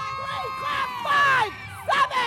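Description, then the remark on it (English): A group of young voices from a cheer team shouts and screams in loud, overlapping bursts, with sharp rising and falling whoops, cheering because the team just hit its first stunt. “I'm screaming like I'm saying yes because they just hit their first stunt.”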